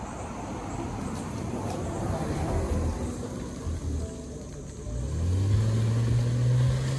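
A fancy car's engine swells up and accelerates past, its low hum rising over a steady wash of road or rain noise in the second half.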